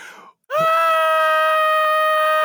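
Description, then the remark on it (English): A voice imitates a child's scream: one loud, sustained, high-pitched shriek held steadily for about two seconds, alone after a brief murmur and a moment of silence. “Don't scream. You have nothing to scream about yet.”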